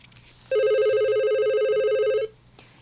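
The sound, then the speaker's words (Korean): A telephone rings with one long, steady electronic tone lasting nearly two seconds, bright and loud with a slight warble, then stops abruptly against a quiet background. “근데 어제 갑자기 한 통의 전화를 받게 됐습니다.”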